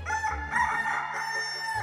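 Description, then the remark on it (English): A rooster riding in a carriage crows in one long, strained cock-a-doodle-doo, loud, with a harsh, raspy tone that holds steady for nearly two seconds. “The bird itself was said to have crowed the whole way and did not seem to appreciate the role it had to play in the spectacle.”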